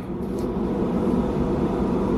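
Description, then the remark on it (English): An air conditioner runs with a steady, low whooshing hum and no change in level, a constant mechanical drone heard alone without any voices. “And um, that's an air conditioner here, and that one I can't really turn off.”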